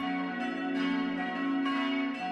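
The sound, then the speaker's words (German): Several church tower bells of the Herz Jesu church in Feucht, the second largest dating from 1688 and four cast in 1960, ring together at midday in a dense, sustained peal, their overlapping tones humming and shimmering continuously at a steady, fairly loud level with no voices. “Ebenso gut harmonieren die Glocken auf dem Kirchturm.”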